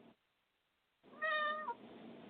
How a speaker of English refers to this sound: There's the cat. I know the cat's telling me what's really going down over there.